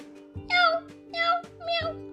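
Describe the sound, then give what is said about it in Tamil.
A voice imitates a cat with three drawn-out meows in a row, each rising then falling in pitch, fairly loud, with a faint steady hum underneath. “அப்படின்னு ஒரு பூனையும் அப்படின்னு ஒரு கோழியும் வளர்த்துக்கிட்டு இருக்காங்க”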